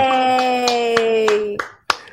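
Hand clapping welcoming back a guest, an emergency veterinary technician: about seven sharp claps in a steady rhythm, over a sustained voice-like held tone that stops partway. The last two claps ring out alone.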